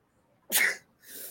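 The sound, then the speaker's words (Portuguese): A single sharp sneeze bursts out, followed by a softer breathy exhale; no talking. “Espirro é inescapável, né? Quando ele vem assim de repente.”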